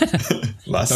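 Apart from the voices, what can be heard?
sneeze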